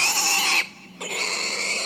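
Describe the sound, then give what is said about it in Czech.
A pig grunts loudly and harshly in two close bursts separated by a brief pause, with no talking. “Kolem ti prase.”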